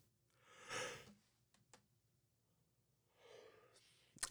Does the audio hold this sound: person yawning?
yes